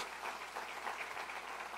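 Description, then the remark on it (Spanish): Steady applause to the Lord at a preacher's call fills the whole moment, a dense crackle of many hands clapping at once with no pauses and no voices, fairly soft overall. “Para todos los hijos de Dios un aplauso al Señor por eso.”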